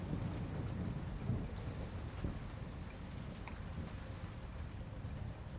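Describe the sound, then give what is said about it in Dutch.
Steady rain pours down in a constant dense hiss, with low rumbling thunder rolling underneath throughout. No voices are heard. “Net zoals de regen.”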